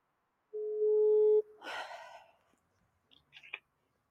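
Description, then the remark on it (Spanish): A call is placed on speakerphone. One steady electronic ringback tone sounds through the phone speaker for about a second, then comes a breathy exhale and a few faint clicks. No one speaks. “pero bueno, el teléfono espero que sí se pueda responder. ¿Va? Altavoz, va.”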